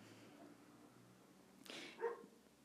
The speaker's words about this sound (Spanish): Ay, mi perrito está ladrando perdón